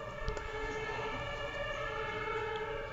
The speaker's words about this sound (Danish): Øhm, nu kommer der en ambulance, kan jeg høre.